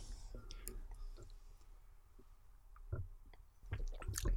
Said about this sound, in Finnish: Tulee nämä kuuluisat maisteluäänet. Mm, kyllä on. Hyvin maukas punaviini,